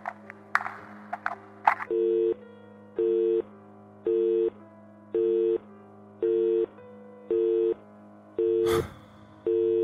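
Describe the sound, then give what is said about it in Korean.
A few sharp clicks and crackles as a call on a military direct telephone line is cut off, then a steady busy tone beeps on and off in a regular rhythm, with one brief burst of static near the end. “여전히 대답 없던 수학인 조그만 발소리를 들려주고는 뚝 하고 끊어져 버렸다.”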